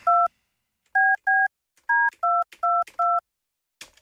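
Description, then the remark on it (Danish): A phone keypad dials a number to call colleagues: seven distinct electronic dual-tone beeps, one alone then a quick pair and a run of four, clear with no talking. “Sådan, så prøver vi at ringe.”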